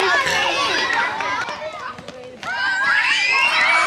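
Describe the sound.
Children shriek and shout excitedly while running around outdoors in a cat-and-mouse chase game during a short school gym lesson, their high voices overlapping continuously and loudly, with a brief dip before the yelling surges again.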